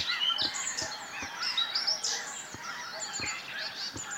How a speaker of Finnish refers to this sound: Kurkia naamuhuuto. No kurkia, joo. joo. Kuunnellaan.